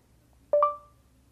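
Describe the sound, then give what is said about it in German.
A short electronic voice-command prompt beep from a phone after its middle hatched key is pressed: two quick stacked tones, the second held briefly and fading, clear against a quiet background with no talking. “Dafür drückt man auf die mittlere schraffierte Taste und wartet, bis ein Piepton erklingt.”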